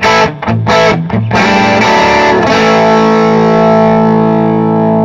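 Crunchy, overdriven electric guitar on the bridge pickup: a few choppy, bright chords with short gaps, then a loud chord left ringing out with thick sustain for several seconds. No one speaks.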